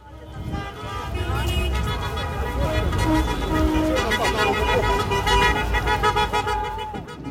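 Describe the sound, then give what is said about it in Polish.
Car horns honk continuously over a loud, dense crowd of cheering voices and shouting in the streets of Kherson, Ukraine, as people celebrate the city's return to Ukraine after Russian forces withdrew, sustained and chaotic for the whole stretch. “Posłuchajcie, jak Hersoń świętuje powrót Ukrainy na te tereny.”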